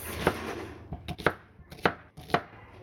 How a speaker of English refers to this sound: And so by chopping the onion, I'm going to demonstrate. You can kind of make a grid first. Like I like to go like this.